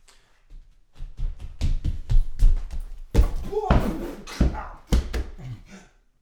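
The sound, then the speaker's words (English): A person runs fast in a quick run of heavy footsteps thudding across a hard floor, then slips on a banana peel in a scuffing skid, followed by a few more uneven thumps. “I actually did slip a little bit”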